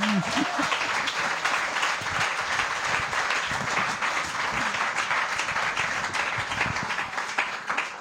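Sustained audience applause, a dense steady wash of many hands clapping at even loudness for the full eight seconds, with a brief voice fragment at the very start.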